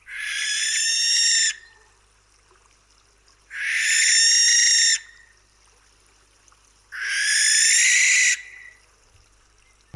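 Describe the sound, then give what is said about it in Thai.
A barn owl in England gives three long, harsh, hissing screeches, each lasting over a second and spaced a couple of seconds apart, loud against a quiet background. “เสียงนกแสกจากประเทศอังกฤษ”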